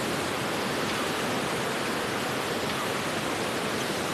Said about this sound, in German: Ein wirklich schöner Fluss.